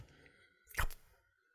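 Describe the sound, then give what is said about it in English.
A single yawn: a short, breathy, rising exhale that swells for about half a second and fades, with no talking around it. “Hold on, man. I gotta yawn.”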